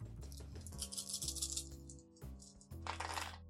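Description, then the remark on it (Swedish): Dice rattle and clatter in two bursts, a longer tumbling roll followed by a shorter clatter, rolled for a manipulation test at difficulty 1 in a game, with a steady low tonal hum underneath and no one speaking. “Jag slog en etta och eh, var massa skit på de andra tärningarna så jag pressar det.”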